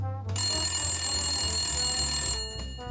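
A shop telephone rings loudly in one sustained, bright metallic burst lasting about two seconds, over a low background hum, then abruptly stops.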